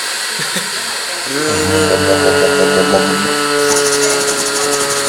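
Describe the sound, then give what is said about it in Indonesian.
A blender motor whirs to life after a brief moment and runs loudly and steadily, its high-pitched whine shifting slightly in pitch as it keeps spinning. “blender blender blender mantap nah udah beres oke okay.”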